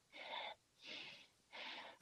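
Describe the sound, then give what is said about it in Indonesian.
Three heavy, wheezy breaths drawn close to the microphone, each about half a second long with a raspy hiss, separated by short pauses. “serem napas lu.”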